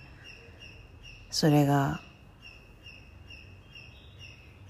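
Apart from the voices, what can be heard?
birds chirping and singing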